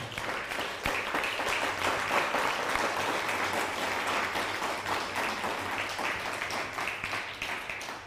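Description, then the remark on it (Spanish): Sustained audience applause for viewers watching from Germany, a dense, steady wash of many hands clapping at an even loudness for about eight seconds, with no voices rising above it. “un fuerte aplauso a Alemania, nos está viendo desde Alemania.”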